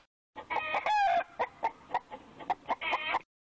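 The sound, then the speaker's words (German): A rooster crows loudly while chickens cluck in a rapid, uneven series of short calls, with no voices. “Statt der Prämie für E-Autos, da könnten Sie mir lieber einen Hühnerstyle und ein paar Hühner finanzieren.”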